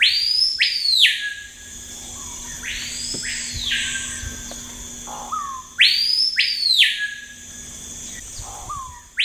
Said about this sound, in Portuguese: O Capitão do Mato, também é chamado de cricrió, que é uma onomatopeia a esse canto, né? uma imitação do canto, cricrió. Talvez seja a voz mais típica da Amazônia